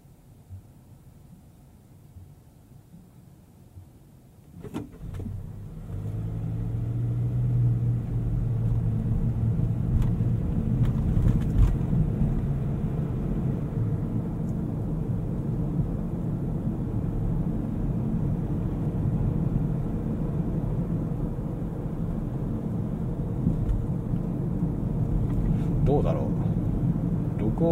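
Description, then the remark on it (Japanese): Inside a car on a drive, recorded binaurally as a test: a few seconds of near quiet, then the engine kicks in and a steady low rumble of engine and road noise fills the rest of the drive. “バイノーラルドライブ録音テスト”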